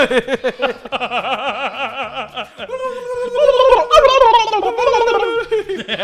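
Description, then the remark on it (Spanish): A person imitates a turkey gobble with a rapid, warbling vocal trill, then shifts into drawn-out, wavering voiced tones that grow louder toward the end. “El sonido un pavo, ¿no?”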